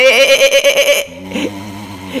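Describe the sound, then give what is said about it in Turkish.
A voice imitates a sheep's bleat: a quavering, wavering 'baa' held for about a second, loud, followed by quieter talking. “Ve koyunlar e, e, e, bizi güçlü mü zannediyorsun?”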